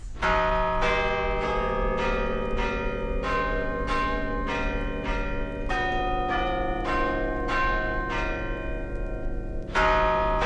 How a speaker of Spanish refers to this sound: Domingo de Pascua, mañana gloriosa. Suenen las campanas, suenen jubilosas.